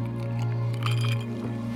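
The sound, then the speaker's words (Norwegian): Drinking glasses clink together in a toast, a bright chime with a short ringing tail over a steady low hum. “Skål. Skål.”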